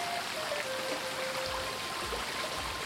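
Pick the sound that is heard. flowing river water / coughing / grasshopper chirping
flowing river water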